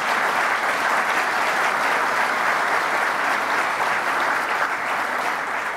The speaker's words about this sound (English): Uh, my partner when I was in the legislature, JoAnne Favors, I know she's reaching the end of her term as a state legislator, and please give her a round of applause for what she does.